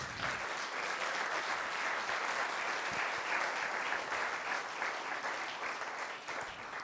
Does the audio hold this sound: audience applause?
yes